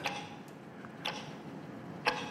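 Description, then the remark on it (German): A clock ticks softly and steadily, each click short and crisp against a quiet hiss, with a few slightly stronger ticks standing out; no one speaks. “Selbst wenn ich Batterie nehme aus meiner Uhr, dann tickt ja die Uhr weiter.”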